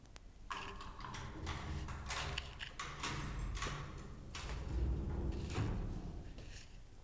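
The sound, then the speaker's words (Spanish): Steady, evenly spaced footsteps thud on a hard surface beside a garden wall door, continuing for several seconds against a low background rumble, with no one speaking. “De pronto, la huérfana sintió pasos junto a la puerta de la tapia.”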